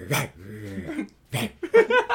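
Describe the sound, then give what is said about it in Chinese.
A person imitates a wolf with their voice: a sharp bark-like yelp sliding into a drawn-out whining howl, a pause, then another yelp and a run of short, high yips. “你先学 野狼 哦，野狼，OK OK。”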